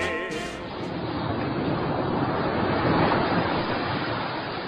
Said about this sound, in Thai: ถ้าเอาเสียงคลื่นที่หาดทรายแก้วเข้าเครื่องแปลภาษา เขาคงจะบอกเราว่ามาเที่ยวที่นี่สิหาดทรายขาวน้ำทะเลใสรอคุณอยู่